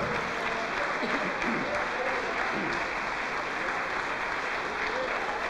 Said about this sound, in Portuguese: Vamos aplaudir ao nome do Senhor por cada vida que está chegando.